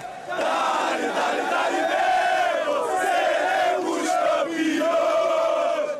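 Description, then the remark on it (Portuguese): A large crowd of Flamengo football fans chants and sings in unison outside the Maracanã stadium, celebrating the Copa Libertadores final, loud, their voices rising and falling continuously for several seconds without a break. “Uma festa que continuou na saída do estádio.”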